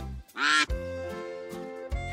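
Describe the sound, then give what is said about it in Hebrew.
A duck quacks loudly: a harsh, raspy burst followed by longer nasal quacks, with no one talking. The duck is one the Montgolfier brothers put, with a sheep and a rooster, into the basket of their hot-air balloon in France. “אל סל הכדור הם הכניסו כבשה, תרנגול וברווז.”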